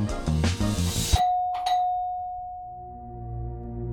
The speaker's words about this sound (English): The doorbell to John Lennon's Bank Street apartment rang.